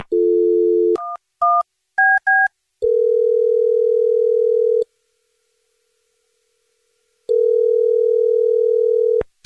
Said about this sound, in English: Here we go. I'm going to dial his phone right now.